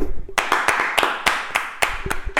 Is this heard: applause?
yes